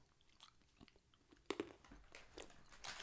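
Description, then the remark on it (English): Crunchy chewing of seaweed-coated (laver) almonds, with a sharp crack around the middle followed by a steady run of brittle crunches and mouth sounds, no talking. “ASMR chewing - everything you haven't really been asking for.”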